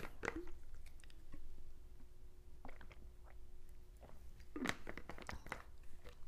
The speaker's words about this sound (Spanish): Ya, perdón, tomé un traguito de agua porque esta gargantita.